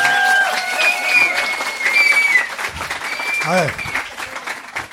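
A live audience applauds steadily with dense clapping for several seconds in answer to a question about whether they have heard weird things, joined by scattered shouts and whoops from audience members, fading slightly toward the end.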